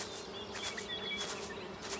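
A steady buzzing of bees hums continuously during a hike among wildflowers, with slight swells as insects drift nearer, and a few faint high chirps of birds in the background; no one speaks.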